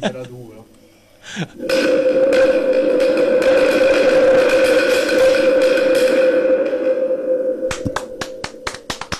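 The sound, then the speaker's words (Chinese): A wind drum, an instrument made to imitate wind, sweeps up into a loud, sustained howl imitating the storm wind before a downpour, a steady pitched roar. It holds for several seconds, then eases off and ends with a few sharp clicks. “暴风骤雨下雨之前的风，OK。”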